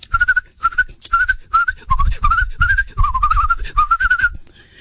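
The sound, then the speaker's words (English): Someone whistles an imitation of birds tweeting: about ten short, warbling chirps in quick succession, fairly loud, with a breathy low rumble underneath and no talking. “Well, the birds flew out and they began to tweet and whistle”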